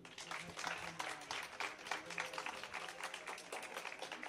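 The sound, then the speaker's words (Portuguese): An audience breaks into steady applause, many hands clapping in a dense, continuous patter that holds at an even level throughout, with a few voices faintly mixed in. “E só por palmas, digam-me só, tipo, pelo menos alguém, só por palmas, quem já ouviu o Exagera pelo menos uma vez?”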